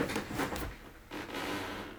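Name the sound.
chair squeaking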